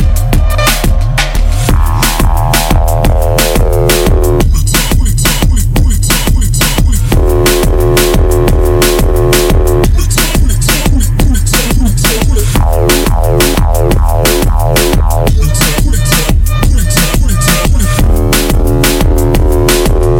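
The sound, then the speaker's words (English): A track from a six-track EP of stripped-down minimal techno plays loud and steady, with a pounding four-on-the-floor kick, crisp ticking hi-hats and repeating synth stabs that shift in blocks. No voices. “And there is a proper nice, stripped down, minimal techno feel to the whole release.”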